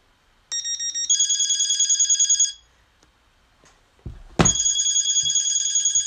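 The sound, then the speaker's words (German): A self-made electronic phone ringtone trills in rapid, pulsing bursts of bright tones, stops after a couple of seconds, then a click or bump is followed by the ringtone starting again loudly. “So einfach ist das nämlich, Klingetöne zu erstellen.”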